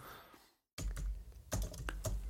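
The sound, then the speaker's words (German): Rapid clattering keystrokes on a loose, rattly computer keyboard, fairly loud, with a brief silent gap before a burst of irregular clicks and taps. “Ich muss mal eine neue Tastatur kaufen, die rappelt ein bisschen.”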